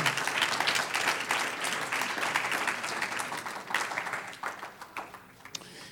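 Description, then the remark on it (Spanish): An audience breaks into sustained applause for the Lord, a dense wash of many hands clapping that stays loud for several seconds, then thins out into scattered, fading claps toward the end. “Un aplauso al Señor, aleluya.”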